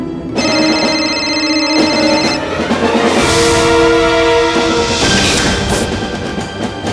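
A telephone rings in Serpukhov district, Moscow region, Russia, in 2009, with a loud, melodic electronic ringtone, steady tones shifting pitch every second or two and playing continuously for several seconds with no voices.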